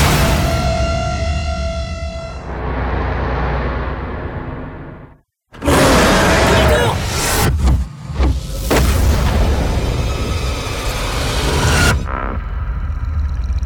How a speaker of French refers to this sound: On se sert d'explosifs pour faire trembler la Terre et nous aider à cartographier l'île. Vous larguez des bombes. Ou des instruments scientifiques.